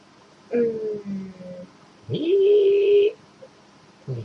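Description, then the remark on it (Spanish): A voice imitates an eerie, theremin-like instrument, a strange table-like instrument played with a stick, crooning a few sustained, wavering notes that slide up and hold, with short pauses between phrases and a brief final note. “es como una especie de una mesa, con un palo, hace un ruido de y empieza a cantar la canción de Star Trek”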